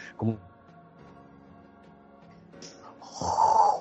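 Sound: voice imitating heavy breathing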